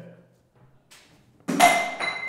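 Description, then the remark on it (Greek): A drinking glass bearing the Olympiacos emblem is thrown toward a bucket and lands with a sudden loud thunk, then rings on without shattering. A faint voice murmurs just before the impact. “Δεν έσπασε. Καλό ποτήρι. Πήγα να το πετάξω στο κουβά.”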